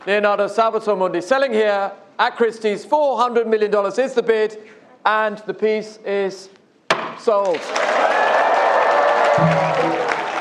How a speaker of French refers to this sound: Et là, on entend adjugé, vendu, on entend le coup de marteau surtout.